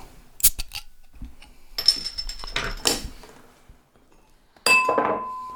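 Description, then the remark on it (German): A stemless red wine glass used as a water glass clinks and rattles several times in quick succession, bright and ringing, then after a short pause one louder clink sounds with a sustained high ring that slowly fades. No one speaks. “Nein, nein, ich habe nur ein Wasserglasel nebenbei stehen gehabt.”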